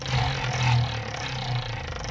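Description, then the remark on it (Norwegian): A wheel of fortune with 24 slots spinning: a steady, fairly loud whirring rattle with rapid fine clicking and a low rumble underneath, continuing evenly for about two seconds with no voices. “Og vi har en, et lykkehjul som vi skal bruke på en eller annen måte når vi har nok straffer vi kan fylle det med.”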